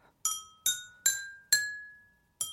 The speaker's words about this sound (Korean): 나는 오르골가 그냥 좋아. 빈집에서 가족이 다 떠나고 나 혼자 남아서 내 생일 잔치를 하고 있는 것 같은 그런 느낌 예, 좀 들긴 하는데요.